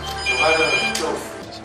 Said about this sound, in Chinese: 这天凌晨五点，幺幺零指挥中心的电话突然响起。